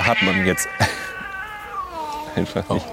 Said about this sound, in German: das ist unsere Katze im Hintergrund, das macht sie normalerweise nicht. Ach, ah, das sind zwei, die sich jetzt anfassen. Ja, sowas. Sehr schön. Ach, das ist ja der Kater von nebenan, der wird vertrieben.